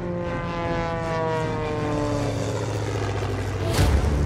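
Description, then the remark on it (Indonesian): Propeller fighter planes, Taylor's and Welch's, including Welch's Tomahawk, roar as they take off from Weller airfield at 9:30 while Japanese Val planes strafe it after Pearl Harbor; a steady loud engine drone with shifting harmonic tones that swells near the end, no voices present. “Pukul 9.30, 16 Val Jepang pulang dari Kaga dari Pearl Harbor memberondong lapangan Weller saat Taylor dan Welch lepas landas ke arah yang berbeda.”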